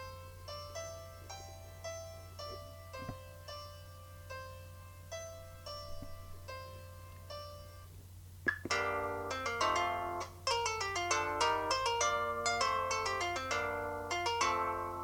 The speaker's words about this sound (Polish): Te dzwonki to widzę, że dla miłośników zarówno głośnych, jak i nieco cichszych dźwięków, bo są z różną głośnością nagrane. Tak, są bardzo różne, tak.